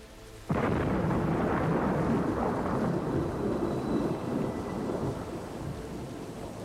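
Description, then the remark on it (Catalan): A sudden loud crack of thunder breaks in, then rumbles on in a long, rolling roar over steady rain, slowly easing but still heavy at the end. No voices. “Seu tranquil·lament i visualitza aquesta emoció negativa, aquesta emoció que et fa patir, com si es tractés d'una tempesta, d'una tempesta emocional.”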